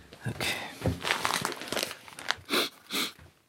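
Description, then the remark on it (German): Dry crinkling of a small plastic bag of cinnamon being handled, with irregular rustles and two louder crackling bursts near the end. “Wo habe ich denn die Tüte hingestellt?”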